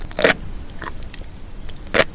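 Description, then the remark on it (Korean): Crunchy chewing of sea grapes: two loud, crisp bursts about two seconds apart with a fainter crunch between, heard alone without talking. “이거 바다포도 아니에요? 육지에서는 이걸 ASMR로 많이 쓰거든요.”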